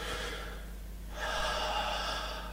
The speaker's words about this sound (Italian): Cioè non abbiamo nessuna resistenza in gola e quindi il, il respiro viene fuori di brutto, insomma, sostanzialmente.